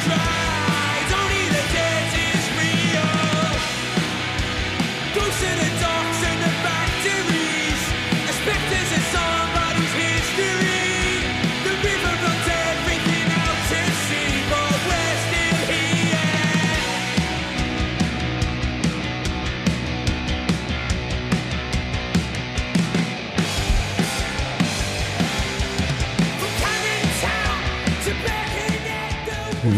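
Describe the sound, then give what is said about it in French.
A loud, dense garage rock song of the kind used as menu music in older FIFA video games plays throughout, with driving drums, distorted guitars and a washy, reverb-soaked sound. No one talks over it. “Il y avait ce genre de reverb un peu garage et tout.”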